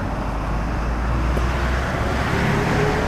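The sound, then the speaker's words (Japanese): Steady road traffic rumbles throughout, a dense low-frequency wash of many cars on a road in the cold early morning of Thursday, December 16, 2021, under a clear starry sky, with a faint engine tone rising near the end, no voices present. “いやそれにしてもこんな早朝なのに車の量が多いですね”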